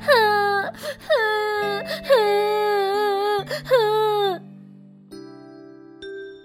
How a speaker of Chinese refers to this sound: 听到嘟嘟的哭声，爸爸妈妈跑过来了。